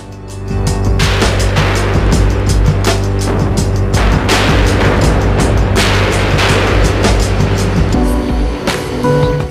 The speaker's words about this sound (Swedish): Sen är det kul när han liksom eh, tar i lite där med den där åskan, eller vad man ska kalla det, som kommer in där på efter en och en halv minut.